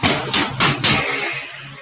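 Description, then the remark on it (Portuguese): A motorcycle goes by with a low engine rumble, punctuated by four loud, sharp popping bangs in quick succession before the noise fades away. No one speaks. “Aí, a moto é, passando. Foi uma moto.”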